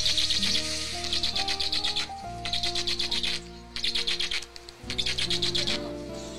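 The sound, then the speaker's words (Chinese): A young stork's begging call: about five bursts of rapid, raspy pulsing notes separated by brief pauses, fairly loud, over a steady low droning tone, with no talking. “是它求食的声音，因为这个鹳类啊，它不像鹤类， 嗯 鹤类它特别喜欢展示自己，而且善于鸣叫， 嗯 而且有一些肢体的跳舞的一些舞蹈非常 嗯 美。”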